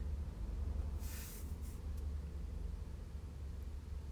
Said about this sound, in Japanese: 今、マックの駐車場で車中録してるんで、ちょっと声のトーンを抑えてます。